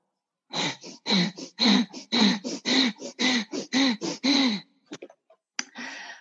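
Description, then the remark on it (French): Rapid, forceful bhastrika yoga breathing, likened to a forge bellows: about a dozen loud, even in-and-out blasts, each with a slight voiced grunt, then a short pause and a few quieter breaths. “Alors bastrika c'est euh, le soufflet de forge.”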